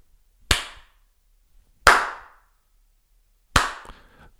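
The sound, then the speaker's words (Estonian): Three single, sharp hand claps by a person testing the room acoustics, spaced about a second and a half apart, each followed by a brief ringing room echo that fades before the next clap; no one speaks. “kui sa näed, et mingi tüüp tuleb tuppa, astub tuppa sisse ja teeb, vaatab ringi, teeb paar korda.”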